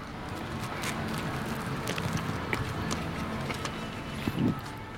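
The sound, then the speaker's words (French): Someone bites into a plain hot dog in a bun, with no mustard or ketchup, and chews, soft moist clicks and smacks coming irregularly over a steady background hiss, with no talking. “Je vais prendre ma première bouchée de”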